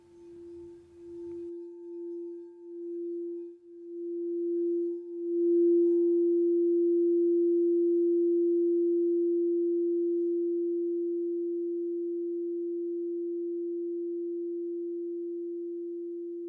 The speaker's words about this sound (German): Die Meditation beginnt und endet mit dem Klang einer Kristallklangschale, die auf das Herzchakra gestimmt ist.